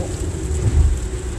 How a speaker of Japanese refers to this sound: だがしかし雨の日の運転ってうるさいですねこれ撮れてんのかなこんなにうるさいとは思わなかったというか結構雨降ってる今日